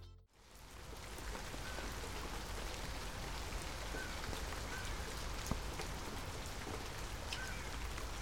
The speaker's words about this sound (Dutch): Regen, regen. Maar is dat nou een zegen?